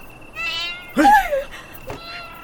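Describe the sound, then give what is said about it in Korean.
A single stray cat meows outside at night, rising and falling, drawn-out and fairly loud, with a fainter harmonic cry before it and a soft trailing sound after, over a quiet steady background hum. “도둑 고양이 때문에 신경 감쌌네.”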